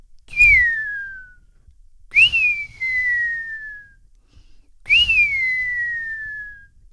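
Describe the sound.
In the morning, inside a tipi where people sit in a circle around a fire, a person whistles three times in imitation of a buzzard's call, each a sharp high note that slides slowly downward into a long, fading mew, with brief pauses between them.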